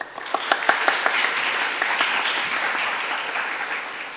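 An audience breaks into applause welcoming a new radio personality, a dense wash of many hands clapping with a few sharp individual claps standing out early on, steady and fairly loud for about four seconds with no talking.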